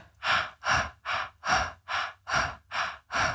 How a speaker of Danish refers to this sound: når du øver labo vejrtrækning, at du trækker vejret i fire korte, og så puster du ud på en lang. Altså, at man gør sådan her.